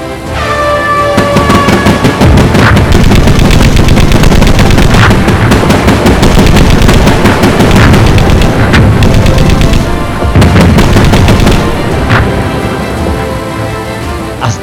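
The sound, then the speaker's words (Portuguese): Anti-aircraft guns aboard the battleship Bismarck pound away at attacking British aircraft on the night of 26 May, in bad weather, in rapid, overlapping bursts of gunfire with heavy booms, a loud, continuous barrage of automatic fire that barely pauses across the whole stretch, with no voices. “defesas antiaéreas abriam fogo contra os aviões britânicos.”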